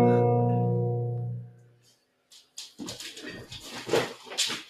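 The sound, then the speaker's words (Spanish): A dog that is biting the speaker and seems to want to go outside lets out a long, drawn-out whimper, loud, that slowly fades, followed by a brief pause and then someone talking. “Y a mí hay un perro que me está mordiendo porque creo que quiere salir a la calle.”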